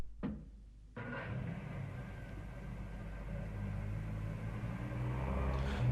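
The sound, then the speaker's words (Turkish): A car engine rumbles low and steady, settling into a continuous idle after a brief quiet start as the driver pulls over to the side of the road in thick fog, with no voices. “Ben de bir kenara çekip sisin dağılmasını bekleyeceğim.”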